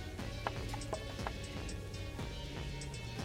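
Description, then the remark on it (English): Hard dice clatter and tumble across a tabletop in a quick, uneven series of sharp, loud clacks during a tabletop game, the roll coming up a natural 20, with no voices over them. “Which my dice for that is real loud.”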